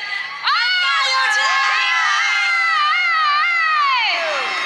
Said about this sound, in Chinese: 来个回击的尖叫声。